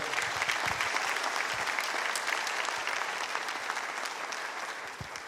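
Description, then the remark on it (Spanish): An audience at a church service applauds Jesus steadily, a dense wash of many hands clapping at even loudness throughout, with no one speaking over it. “Dele un fuerte aplauso a Jesús por eso, por favor.”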